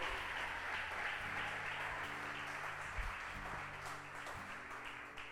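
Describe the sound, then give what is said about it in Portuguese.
A large crowd at a religious service applauds in praise of God in a steady, dense wash of clapping for several seconds, while sustained low keyboard or organ chords hum underneath. “Então aplauda bem forte a Ele em nome de Jesus.”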